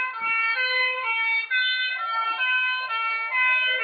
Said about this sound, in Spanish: Que cuando el camión de bomberos se acercaba a nosotros, hacía un sonido muy agudo, hacía ni, ni, ni, ni, y cuando se aleja de nosotros hace no, no, no, no.